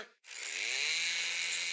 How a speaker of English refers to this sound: Okay, so here's where Itchy lunges at Poochie with a rusty chainsaw. Cue sound effects. Rustier.